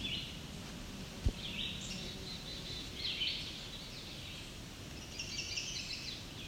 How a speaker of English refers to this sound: chestnut side warbler singing again. There we go. a chestnut side warbler again. It's back to singing.